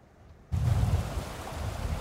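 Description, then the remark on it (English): After a brief near-silent moment, a steady, loud rush of floodwater streaming along South Parallel Road beside Highway 1 in Abbotsford, next to a property, cuts in abruptly, a continuous watery roar with a heavy low rumble and no voices. “You can see the road ends into what is a lake and some water streaming right next to a property.”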